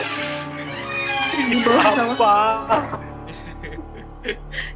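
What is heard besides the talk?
creaking door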